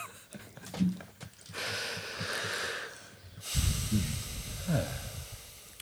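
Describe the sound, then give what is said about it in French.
Several people take deep, audible breaths at the Ferme du Joran, long airy inhales and exhales overlapping one another, with a few soft vocal sounds mixed in. “Fais quelques respirations.”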